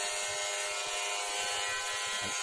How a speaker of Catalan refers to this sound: Podem estar tallant els cabells, m'està rapant el cap. T'està rapant el cap.